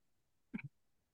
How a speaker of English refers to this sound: Excuse me. Bless you again.